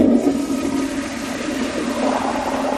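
A sensor-operated toilet in a public restroom flushes automatically as someone turns around to sit down, a steady rushing gurgle of water that holds at an even loudness for a few seconds with no voices over it.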